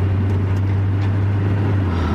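Steady low rumble of road noise inside a moving car, with a constant engine drone and no voices, holding an even loudness throughout.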